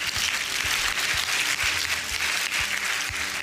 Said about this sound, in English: Can you give the Lord a shout and a hand clap this morning?